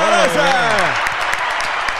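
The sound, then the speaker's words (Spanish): Loud, dense applause fills the whole two seconds as a steady crackle of many clapping hands, opening with a voice's falling, whooping cheer over it. “Y hoy tenemos fuerte el aplauso, Corillo.”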